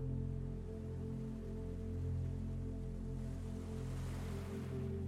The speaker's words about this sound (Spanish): Imagina que escuchas las olas del mar.